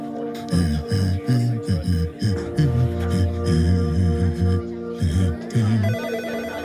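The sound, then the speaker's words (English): A telephone rings loudly, its bright electronic tone pulsing in a steady, repeating pattern for several seconds without pause. “It appears that the phone is ringing.”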